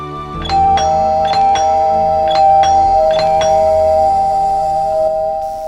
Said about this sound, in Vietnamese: Ai, ai bấm chuông anh nổi giờ này vậy kìa